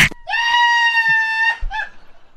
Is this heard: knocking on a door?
no